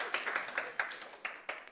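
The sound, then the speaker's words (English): A short round of applause from an audience: a handful of sharp, uneven claps rising and falling at a quiet level, with no voices over them. “Yes, round of applause.”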